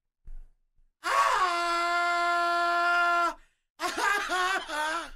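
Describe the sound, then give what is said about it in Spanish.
A man belts out a loud, sustained scream for over two seconds, then, after a brief pause, lets out a second, shakier wavering yell. “A ver, aviéntate un grito y yo te voy a decir de cuánto es.”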